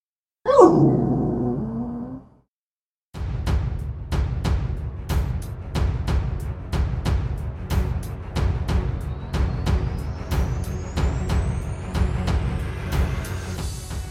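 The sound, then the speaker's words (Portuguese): A female dog lets out one short, low grumbling growl lasting about two seconds. After a brief silence, steady rhythmic music with sharp ticking beats begins. “Permaneço na linha após o resmungo da minha cadela pipoca”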